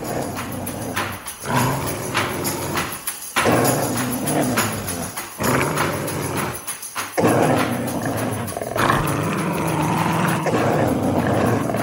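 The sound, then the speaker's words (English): Two packs of dogs facing off over a bag of rubbish bark at once in a loud, overlapping clamor, yaps and deeper woofs tumbling over each other, with brief lulls before the racket surges back up. “we have a clip of our main crop of characters, our main pack of dogs, facing off with another pack of dogs over a bag of rubbish that they don't that they can't see the contents of.”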